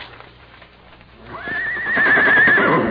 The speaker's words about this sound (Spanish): Y este fregado caballo relinchando. Y es que está en su pesebre.